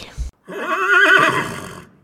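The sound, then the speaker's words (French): A horse whinnies once, loud, a shrill wavering neigh lasting about a second and a half before trailing off, just after a brief scuffing noise. “Si des voitures passaient, ils soufflaient du poivre dans la narine des chevaux et naturellement les voitures s'arrêtaient.”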